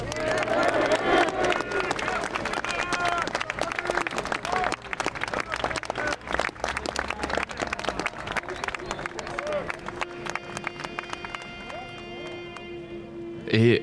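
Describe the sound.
Dense outdoor crowd noise at the Communard commemorative street march on Thursday 18 March 2021, with many overlapping voices, shuffling footsteps and scattered clapping. It is steady and loud throughout, with a sustained tone and a burst of noise near the end.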